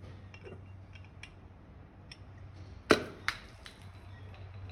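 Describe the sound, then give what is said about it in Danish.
A sparkling wine bottle is uncapped à la volée: the bottle is turned, the cap comes off with a sharp metallic pop, then a quick second hiss-like burst as the bubble shoots out the yeast, over a steady low hum with faint clinks. “Og nu har vi jo åbnet en af jeres flasker til fremvisning der.”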